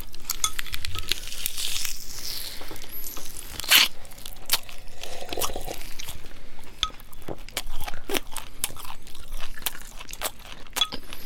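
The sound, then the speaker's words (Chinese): Roast turkey being bitten and chewed, with a steady run of irregular crunchy snaps and crackles, fairly loud and continuous, and no talking over it. “因为我在想，始祖鸟会不会吃起来就是这个感觉？”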